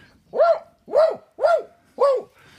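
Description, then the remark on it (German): A dog barks four times in a steady, evenly spaced rhythm, each bark loud with a rising-then-falling harmonic tone, no talking over it. “oh, Eine da, Tür da geht auf. ein Hund.”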